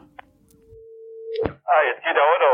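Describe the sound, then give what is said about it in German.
In the evening, a steady telephone dial tone hums and slowly grows louder for about a second, then cuts off with a sharp click as the call connects and a voice starts talking. “Abends, wahrscheinlich gegen 7.07 Uhr, telefonieren die beiden wieder”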